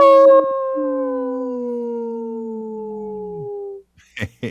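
A single long wolf howl, loud, holding a steady tone that slowly sinks in pitch for nearly four seconds before trailing off, followed by a brief clipped sound.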